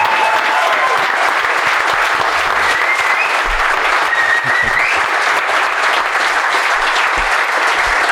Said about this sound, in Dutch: Ik vond de eer dat jullie onze eerste gasten waren bij deze live show met publiek erbij. Dus mag ik keihard applaus voor Glenn Helder en Sander Westerkamp.